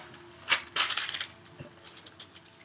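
A beer can is cracked open up close: a sharp metallic click, then a brief hissing burst, followed by a faint fizzing crackle as the carbonation settles. No one speaks.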